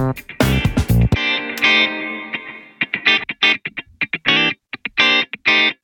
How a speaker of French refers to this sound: On n'entend plus que la réverb, mais plus le, son direct. Et si je vous fais écouter que le son direct, ça donne ça.